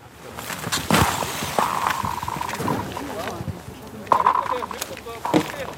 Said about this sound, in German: Ein Geräusch, das sonst eher in Filmen vorkommt. Die Eisdecke auf dem Hopfensee ächzt.